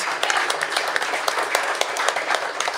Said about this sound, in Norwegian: Gi en stor applaus.